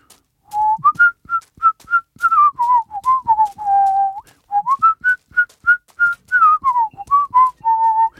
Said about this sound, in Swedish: Vet du vad, jag bara visslar något när jag går dit.